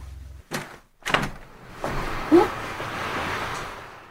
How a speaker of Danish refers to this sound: kan jeg ikke lige få dig til at åbne vinduet og række armen ud?